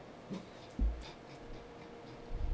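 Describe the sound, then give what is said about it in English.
Quiet crinkles and light clicks as a plastic drink bottle, not a water bottle, is handled, with a few irregular taps and a slightly louder knock partway through. No one speaks. “Y'all hear that plastic? That ain't no water bottle plastic”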